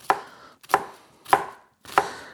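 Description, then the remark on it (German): A knife finely dices a peeled onion on a cutting board for goulash: four crisp, sharp chops spaced roughly every half second, each with a short crunchy tail, with no voices. “So, ich habe jetzt die Zwiebel hier schon geschält und schneide die jetzt in feine Würfel.”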